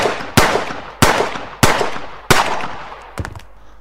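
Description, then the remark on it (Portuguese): Four sharp handgun shots ring out at irregular intervals, each with a loud crack and a decaying echo, followed by a pair of quicker, quieter shots at the end. “E essa desgraça de canhão de mão só dá 1d6 de dano por algum motivo.”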